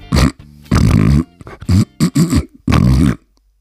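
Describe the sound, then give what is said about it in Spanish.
A person imitates a dog's reverse sneeze with a series of loud, raspy snorting gasps, some short and some drawn out, in an uneven rhythm before falling silent. “No esto que acabo de hacer es una cosa que llamamos... ¿Eh? estornudo inverso, ah.”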